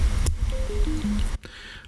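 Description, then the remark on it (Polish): A right-ear headset's power-off chime as its slide switch is turned off: four short electronic tones stepping down in pitch, clear, bracketed by a soft switch click before and after, with faint background noise. “no właśnie nam się wyłączy niższym tonem.”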